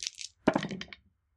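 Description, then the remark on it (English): Dice rattle briefly, then clatter onto a hard table with a sharp knock and a quick run of smaller bouncing clicks that fade within half a second. Fairly quiet, with no voices. “These dice suck.”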